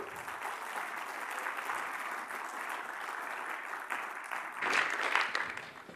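An audience applauds a guest being introduced for an interview about spiritual maturity: a steady, dense wash of clapping that swells louder toward the end before fading slightly.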